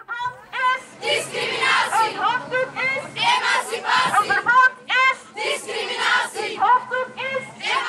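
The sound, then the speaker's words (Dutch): A crowd of many voices chants and shouts together in rhythmic bursts, loud, with a steady low hum beneath the massed voices: a 2009 protest in Antwerp, Belgium, against the headscarf ban introduced by the Koninklijk Atheneum school. “We horen een protest dat toen plaatsvond tegen het hoofddoekenverbod dat het Koninklijk Atheneum in Antwerpen invoerde.”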